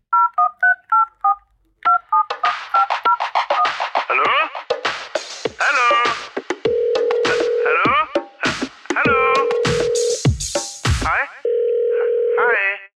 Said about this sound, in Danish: Og det var jo vores nye jingle til, øh, til Vi Ringer-segmentet. Til jer, der har skrevet ind, at I synes, det var en fucking lorte jingle, så kunne I lige nyde den en gang mere